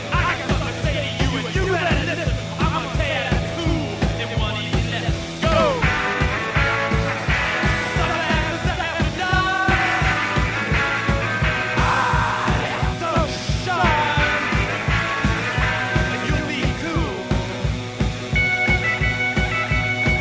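A loud, driving rock song with twangy surf-style electric guitar riffs over a pounding, steady drumbeat, with the full band playing continuously at an even volume throughout.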